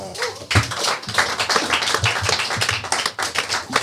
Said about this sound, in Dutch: Mag ik applaus voor David Pefko?